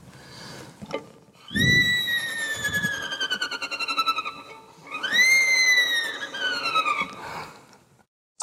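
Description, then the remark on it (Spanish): A voice imitates a wife's snoring with two long, high-pitched, squeaky breaths, each fluttering rapidly and sliding downward in pitch, fairly loud, with no talking. “¿Así ronca mi esposa?”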